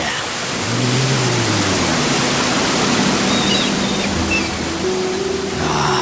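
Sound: ocean waves sound effect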